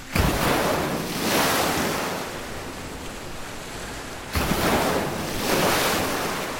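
crashing ocean waves

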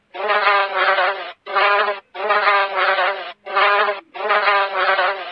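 fly buzzing around

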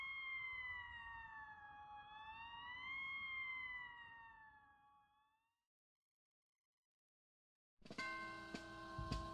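police siren approaching

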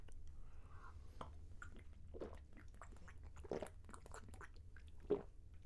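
sipping beer

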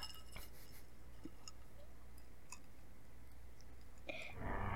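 ice cubes clinking

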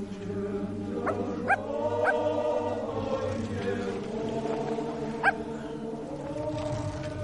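dog barking and whimpering

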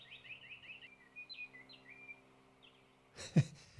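birds singing

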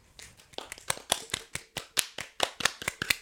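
applause

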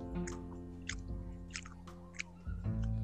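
chewing food

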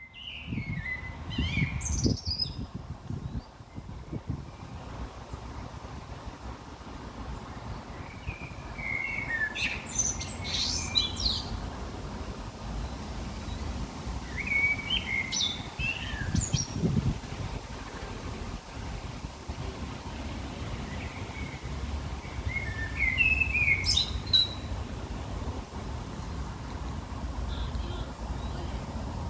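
birds singing

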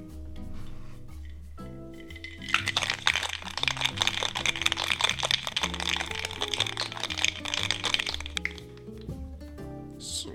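cocktail being shaken

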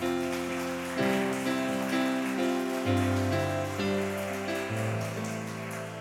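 audience applause

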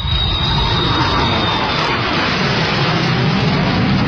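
airplane taking off

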